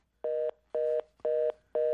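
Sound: telephone dial tone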